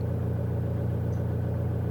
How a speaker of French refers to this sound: Et puis d'un coup, je les ai vus. D'autres phares. Une voiture allait me croiser.